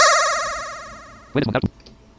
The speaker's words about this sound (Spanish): Si el pitido se escucha luego, luego, tin, tin, tin, en esa frecuencia, o sea, nos va a chocar. Tendrías que escucharse más a un lado, como un poco en otra frecuencia, en otro tono vamos a ver.